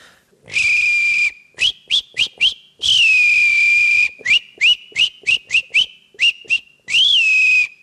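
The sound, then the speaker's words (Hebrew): A professional whistler whistles a songbird imitation: long sustained high notes alternating with quick bursts of short chirps, loud and clear with no talking. “וחוץ מזה, כל מיני אה, דברים כמו נגיד ציפור שיר, ככה.”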